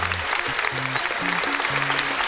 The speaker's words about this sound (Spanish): Aplausos, Jack Skellington.